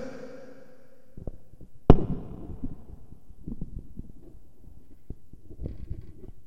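A chair is lifted and shifted by a speaker giving an example during a talk, starting with one sharp clack followed by a run of irregular low thumps, bumps and scrapes as it is handled and set down. No one speaks.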